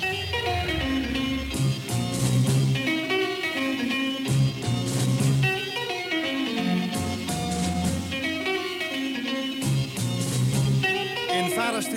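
A lively 1960s beat band plays live in a VARA studio in 1965, with three electric guitars, one organ and driving drums in a full, dense mix and a repeating rhythmic pattern throughout.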